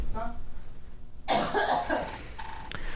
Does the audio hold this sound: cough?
yes